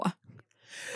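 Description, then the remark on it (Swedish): A single sharp, explosive sneeze bursts out right at the start, fairly loud, then fades into soft breathy rustling and quiet background noise. “Bless you.”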